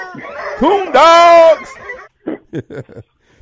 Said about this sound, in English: Coon dogs.